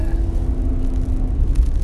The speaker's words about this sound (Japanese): 今その、えー、車中で撮っております